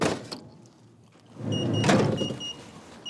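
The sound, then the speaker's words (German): After a code is entered, a few mechanical clicks and clunks, then an electric gate motor whirs steadily with a faint high whine as the gate swings open, with no one speaking. “Der Code, den Kaimo dafür gerade eingegeben hat, wird uns noch viele weitere Türen öffnen”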